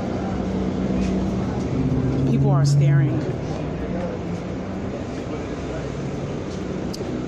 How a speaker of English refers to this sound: Wait, I think I'm getting on this bus. I think I'm getting on it. I'm on a bus